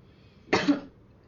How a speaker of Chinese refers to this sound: 就是啊咳嗽了一下，不好意思啊